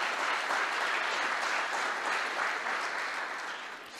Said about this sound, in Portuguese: Vamos dar uma salva de palmas ao Senhor por isso, amém?